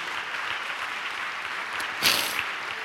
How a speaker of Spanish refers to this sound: Santo Dios. Dele un aplauso a Dios.